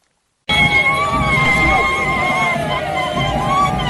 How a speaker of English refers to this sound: The sounds of drums, applause, and cries of joy from the faithful welcomed Pope Francis.